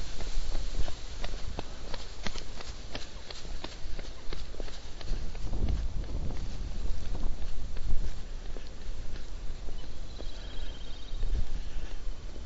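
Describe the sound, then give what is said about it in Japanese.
Steady, rhythmic footsteps on a path as a runner overtakes on a walk around a pond, quickening as the runner approaches and passes by, with light wind and outdoor ambience underneath and no talking. “今ランナーの人が追い抜いていきましたけどね”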